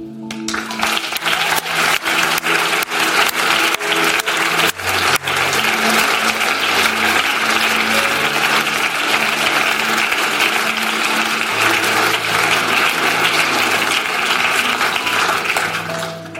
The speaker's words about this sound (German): Der Applaus soll gelten für all die Menschen.